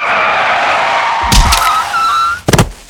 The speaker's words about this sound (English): Whoa! A car. Brilliant.